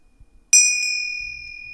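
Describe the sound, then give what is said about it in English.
A bright bell in a house is struck once, loud, its clear metallic tone ringing on and slowly fading, with a faint second tap and a low rumble near the end. “And so too do the bells ring in the house too.”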